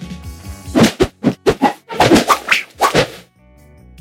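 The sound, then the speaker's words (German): A quick series of about eight sharp swooshes, a clothes hanger swung rapidly through the air again and again, fairly loud, over a faint steady tonal background. “Simple Swooshes”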